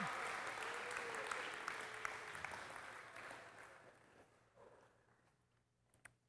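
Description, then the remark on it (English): A crowd applauds for children heading out to a workshop, with dense, steady clapping that gradually thins and fades out, leaving a few scattered claps at the end. “All right, we want to dismiss our kids so you can keep clapping.”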